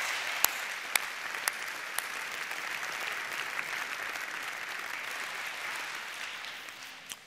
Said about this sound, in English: Last semester, we delivered 15,361 meals with 263 faculty, staff, and student volunteers that helped make sure everybody that was in isolation or quarantine was fed. So, if you helped with that, thank you. Can we give a round of applause for them?